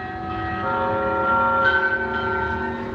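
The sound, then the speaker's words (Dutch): Church bells of a church in Kharkiv, Ukraine, ring in a dense, sustained wash of overlapping tones, steady and fairly loud for the full few seconds, with no voices present. “Dit is trouwens de kerk in Kharkiv.”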